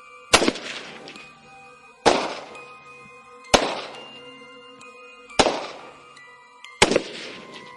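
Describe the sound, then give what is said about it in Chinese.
Rifle gunfire in short bursts aimed at the lead wolves of a pack about fifty meters away, fired from the half-opened door of a guard post: five sharp, loud cracks at uneven intervals of roughly one and a half seconds, each trailing off in a ringing, echoing decay. No voices are heard. “不能让狼群再靠近了，我将大门开了一半，向外面探出了身子，对着最前面的几头狼就是几个点射。”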